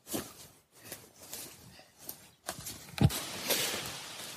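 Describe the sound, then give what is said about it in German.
Footsteps crunch and rustle through dry fallen leaves on a forest path, passing from a pine forest into a deciduous forest, in a steady walking rhythm, with one heavier step standing out partway through. No one speaks. “Ja, am Rascheln des Laubs an meinen Füßen merkt man vielleicht, ich bin gerade von einem Kiefernwald in einen Laubwald, Kuchen übergegangen.”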